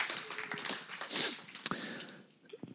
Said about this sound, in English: Just like, I just want to clap you guys. Let's all clap together just for the faith of you guys because it's amazing.